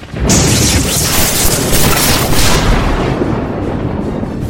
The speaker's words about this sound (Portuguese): Dos céus desce o mais poderoso relâmpago jamais visto que cai no rio Tietê